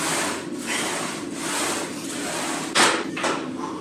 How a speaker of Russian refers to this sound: выполняет э, упражнение на платформе жим лежа. И можно слышать, как он это делает, так как говорят, что это очень его любимое занятие.